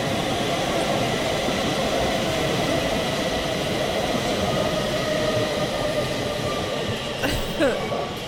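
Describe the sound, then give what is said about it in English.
A subway train rumbles steadily along the tracks, a dense, continuous low roar with rattling wheels, and a brief metallic squeal rises near the end. “All right, guys, so now we're headed on down to the subway.”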